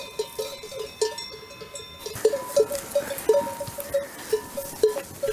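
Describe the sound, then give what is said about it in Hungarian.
Many sheep bells clank and jingle irregularly as a flock of sheep is herded along outdoors, a steady scatter of tinny metallic tones, with no one speaking. “De mint jól látszik is, hogy a hátulja már viszont szinte tekeredik, ugye kifele és azért próbálok meg már ott menni elibéljek, hogy tudom, hogy arra el fogja fordítani a nyájat.”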